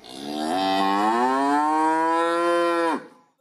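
A single long cow moo, played as a sound effect by an editor, loud, rising slightly in pitch and holding steady for about two and a half seconds before cutting off abruptly. No talking.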